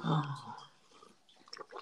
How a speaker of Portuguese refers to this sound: Vou comer craque que craque. Hum, crocante.